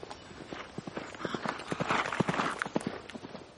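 Several horses gallop fast, running wild toward open country, their hooves pounding in a rapid, uneven drumming over a rumbling, dusty background that swells and stays loud throughout.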